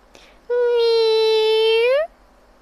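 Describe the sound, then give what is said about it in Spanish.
A single long, steady cat meow, loud, holding one pitch for about a second and a half before sliding upward at the end, with no other sounds around it. “A lo que voy es de que este gato maulla exactamente igual a como se escucha esa cosa, a como se escucha ese silbido.”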